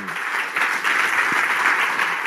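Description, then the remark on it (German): Sustained audience applause closing a stage discussion, a dense, steady wash of many hands clapping at a fairly loud, even level throughout, with no voices standing out. “Erstmal noch einen großen Applaus abschließend”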